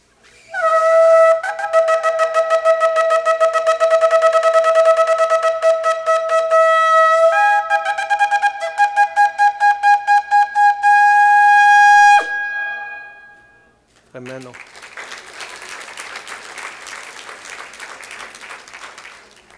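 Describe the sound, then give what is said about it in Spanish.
A loud, bright trumpet call plays for about twelve seconds: sustained, fluttering tones that step to a new pitch midway. After a short pause, a wash of noise like applause follows. “Había intercalado un sonido de trompeta que es pónganse cada uno donde tiene que estar.”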